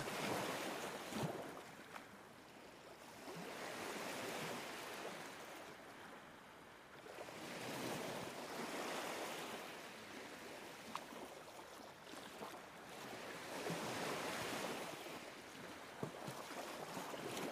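Ocean waves roll onto the shore in slow, steady swells, each surge building into a broad wash of surf and then receding, repeating about every six seconds with no voices present.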